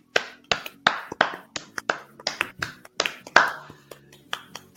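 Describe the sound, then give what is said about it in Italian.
Scattered applause from a small audience: sharp, uneven hand claps that overlap loosely over about five seconds, moderately loud, with no talking. “Comunque un applauso al nostro pubblico se lo merita lo stesso.”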